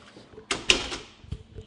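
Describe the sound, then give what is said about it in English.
A door swings shut with a scraping rush and a sharp clack, followed a moment later by a softer thud as it settles. No one speaks. “Shut the door.”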